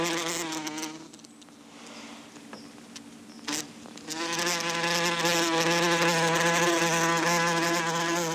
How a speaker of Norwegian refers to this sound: Ehm, hvem er det vi hører? Nå hører vi vepsen. Stikkevepsen, jeg har sagt.